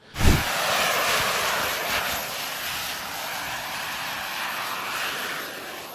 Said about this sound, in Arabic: هو عبارة عن الرجل الطائر الرجل الطائر هذا الجهاز اللي انت بلبسوه قاذف بيكون آه وبيعطي قوة دفع قوية فانت بناء عليها بتطير بالهواء